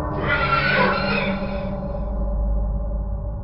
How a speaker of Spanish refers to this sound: Al fin lo miré logré ver el caballo que estaba haciendo tanto ruido, el caballo que estaba más agitado, el que relinchó varias veces.